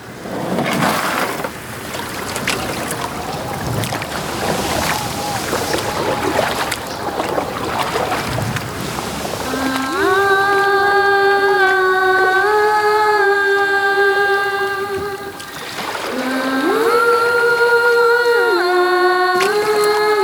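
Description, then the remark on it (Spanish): Oars dip and splash in water with a steady, unhurried rhythm as a woman rows a small boat with no motor, before a held, stepping melody of sustained tones rises over the scene and carries on to the end. “Es mejor así. No hacemos ruido. Además, yo remo.”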